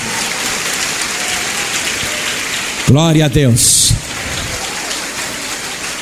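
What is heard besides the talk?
audience applauding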